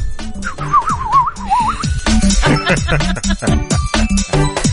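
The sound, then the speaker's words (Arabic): A person whistles a short, wavering trill meant to imitate a sparrow's chirping, lasting under two seconds, with rhythmic background music continuing underneath and afterward. “هذا عصفور تعبان”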